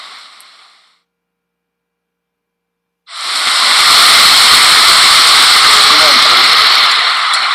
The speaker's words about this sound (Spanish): Son las 3 y media de la mañana estamos en el clásico callejón del aguacate. Está cayendo una lluvia bastante peculiar.